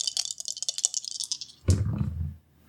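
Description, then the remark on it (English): Three dice rattle and click in a cupped hand for a moment, then tumble out with a louder clattering roll across a hard surface before settling. Fairly loud, with no talking. “How many dice are you rolling?”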